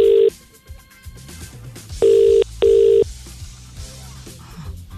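A phone line's ringing tone on an outgoing call: a steady, loud electronic double ring, two short buzzing pulses close together, heard over faint background music with no one talking.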